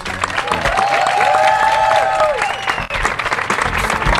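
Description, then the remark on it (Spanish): An audience at the radio show Seguro La Habana on Futurock FM, on the terrace of Junta, breaks into loud, sustained applause for the day's guest, a dense steady wash of clapping lasting several seconds, with a drawn-out cheer rising and falling over it early on. “Yo quiero que este público reaccione realmente como público y le den un fuerte aplauso a nuestro invitado del día de hoy”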